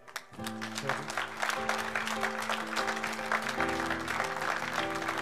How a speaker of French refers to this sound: Et si on l'adorait pendant une petite minute, rien qu'avec nos acclamations